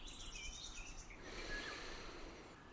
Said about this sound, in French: Inspirez ce chant d'oiseau, ces sons du printemps le jet, le coucou, les merles, les mésanges.